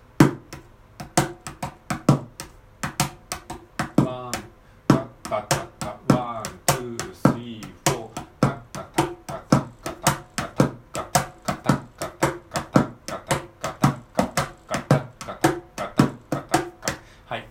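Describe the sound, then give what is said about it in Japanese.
A mini cajon is struck in a steady, swung shuffle rhythm, with crisp slaps and deeper thumps repeating evenly for the whole stretch. A voice briefly joins in partway through. “ミニカホンを叩いてみた⑩〜16ビートシャッフル”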